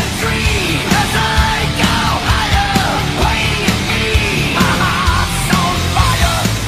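A heavy metal song plays loudly and continuously as background music on a rock radio programme, with a dense wall of distorted guitars, steady pounding drum hits and strained, shouted vocals over the top.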